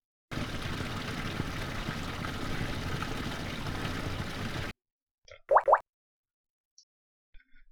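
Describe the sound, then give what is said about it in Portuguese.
Water rushes steadily from the opened valve of a water tank that is not very full, for about four seconds, then cuts off abruptly, followed by two quick hollow plops and a few faint drips. “Já ao abrirmos o registro da caixa de água não tão cheia, temos o seguinte som.”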